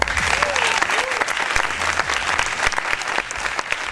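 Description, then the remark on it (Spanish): Steady, dense applause from the audience of the show Lo de las Noticias, welcoming host Miguel Anómalo, fills the whole clip, loud, with a brief whistle-like tone rising near the start and no clear talking. “Muchas gracias, público de verdad, público de mentira. Un saludo también, eh, un aplauso también para mi compañero”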